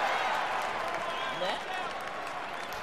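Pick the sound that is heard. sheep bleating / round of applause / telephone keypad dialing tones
round of applause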